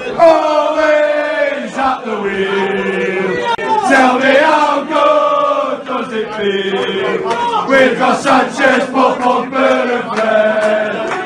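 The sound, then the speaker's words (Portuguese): A large crowd of football supporters sings a loud chant in unison, the melodic voices swelling and dipping steadily for several seconds with no pauses. “Tá aí a musiquinha que ficou famosa.”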